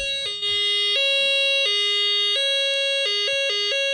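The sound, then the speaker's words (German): A loud, buzzy electronic tone from a homemade synthesizer steps back and forth between two pitches in an uneven rhythm, sounding much like a siren, with no one speaking. “Wie ihr hört, es funktioniert. Es klingt ein bisschen wie eine Sirene.”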